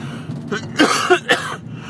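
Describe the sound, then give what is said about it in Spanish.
A few raspy coughs in quick succession from a person with a lingering cough in Alicante, with a throat-clearing quality, standing alone without any talking. “hoy tengo menos tos, pero algo queda ahí.”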